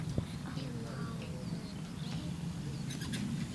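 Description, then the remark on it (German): A Eurasian skylark sings faintly on a heath, with thin, high trills and chirps over steady low rumbling background noise. “Oh, ich höre die Feldlerche.”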